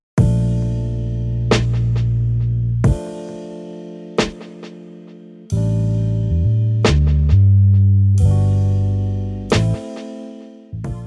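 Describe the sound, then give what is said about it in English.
Sustained electronic keyboard chords change every second or so, backed by punchy drum hits and a deep bass guitar line, forming a full, steady instrumental groove with no voices. “These keys are supported by drums and a bass guitar.”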